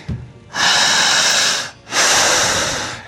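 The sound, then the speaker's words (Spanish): Two forceful, deep breaths drawn in sharply during a breathing exercise, each lasting over a second with a short pause between, loud with a rushing, airy hiss and no talking. “Vamos a jalar el aire igual que yo, por favor. Jalando el aire así.”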